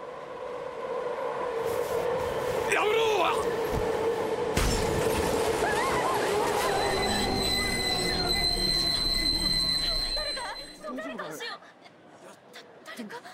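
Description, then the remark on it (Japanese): A train passes without stopping along track 2 of a station platform, a loud rolling rumble with high metallic wheel squeals that cut off abruptly after several seconds; a voice shouts over the noise. “まもなく2番線を電車が通過します危ないですから黄色い線までお下がりください”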